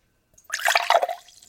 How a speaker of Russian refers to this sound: Это я наливаю боржоми.